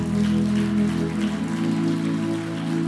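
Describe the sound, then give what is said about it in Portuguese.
Steady, dense audience applause fills the whole stretch, a continuous crackle of many hands clapping at even loudness, with a low sustained musical tone humming underneath. “Pode aplaudir.”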